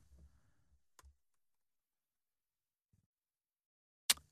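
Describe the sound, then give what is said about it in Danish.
A few isolated computer keyboard key presses, including the comma key: a soft click early on, a faint tap later, then one sharp, loud keystroke near the end, separated by long quiet gaps. “Nå, det er så bare ud, som du trykker på kommatasten lige der.”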